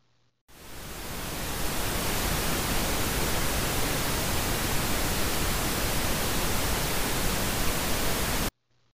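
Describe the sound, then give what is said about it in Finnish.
A steady, continuous wash of pink noise, full and slightly bass-heavy like a soft roar, starting abruptly and holding at an even loudness for about eight seconds before cutting off. No voices. “Vaaleanpunainen kohina kuulostaa tältä.”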